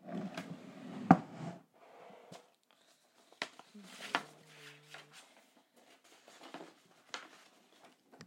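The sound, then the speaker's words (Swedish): Someone rummages in a drawer to fetch a notepad: irregular knocks, rustling and clattering objects, a sharp bang near the start and a brief squeaky scrape partway through, with quiet gaps between bursts. “Jag ska bara hämta det här i lådan, så vänta lite.”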